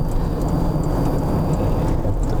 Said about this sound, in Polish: o, tu też jakoś sporo tych samochodów.